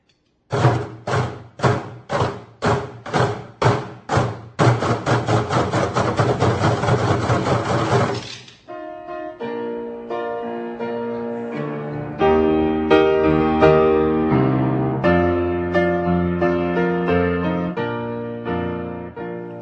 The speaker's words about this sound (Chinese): 您现在所听到的打击乐的声音，是二月六号把耶稣的爱传出去，关怀南亚灾民重建音乐会开场的乐曲